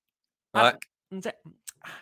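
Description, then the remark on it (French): A voice imitates the dry, sticky mouth noises of a person with a dry mouth speaking into an overly powerful microphone on a TV report: a loud smacking burst followed by several shorter clicky, lip-and-tongue sounds in an uneven sequence. “même les petits bruits de bouche, là”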